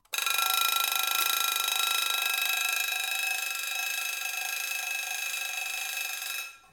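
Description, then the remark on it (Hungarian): A vintage Junghans alarm clock from about 1937 rings with a loud, continuous, bright metallic bell clatter that holds steady for about six seconds, then cuts off abruptly. No voices. “Ez egy Jungház ébresztő óra, körülbelül 1937-ből.”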